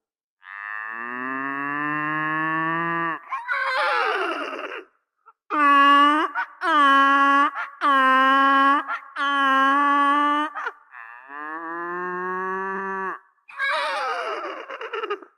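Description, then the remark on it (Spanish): Distressed cattle struck by a devastating epidemic in Egypt low in long, wailing moos, interrupted by a burst of rapid, pulsing calls and a couple of shrill horse whinnies. The animals sound loud, with no talking. “Una devastadora epidemia atacó el ganado y murieron los camellos, las vacas, los asnos y las ovejas.”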